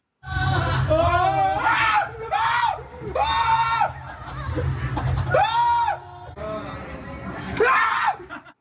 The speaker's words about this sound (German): ich werd an dieser Stelle den Schrei einfach reinschneiden.